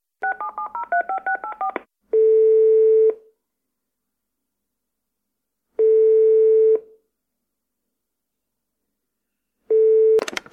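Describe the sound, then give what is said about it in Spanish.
A quick run of about a dozen touch-tone keypad beeps dials a mobile phone, followed by long ringing tones spaced several seconds apart as the call waits to connect, with no one talking. “Venga, le, llamamos al móvil, ¿no? al móvil.”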